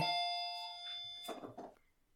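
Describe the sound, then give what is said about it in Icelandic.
A doorbell chime rings out with a clear, sustained tone that slowly fades, followed by a couple of brief, noisy bursts of sound before it trails into quiet. “Það er alveg ofgóð tímasetning fyrir dyrabilluna.”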